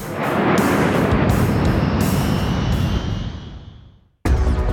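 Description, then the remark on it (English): A loud, continuous jet-thruster roar with a high whine sliding downward, fading away over a few seconds before cutting to silence, then another blast of roar bursts in at the end. “it's time to get to the job so I transmorph into a jet thruster.”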